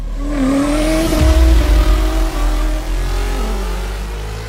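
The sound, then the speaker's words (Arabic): A car engine revs up with a rising, whining pitch, peaks with a loud burst around the middle, then settles into a lower, steady rumble. No one speaks. “نعم، إنها مركبتك.”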